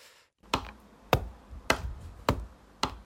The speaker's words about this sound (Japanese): 家でただひたすらハンコを押すというねその娘さんが部屋入ってきてお母さんのこの後ろ姿見たらちょっと怖くて泣いちゃうんじゃないかっていうやつね